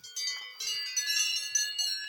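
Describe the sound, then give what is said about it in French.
Cowbells on a small herd of cows clank and ring in an overlapping, irregular jangle, several bells sounding with bright metallic tones and no voices. “Petit troupeau de vaches.”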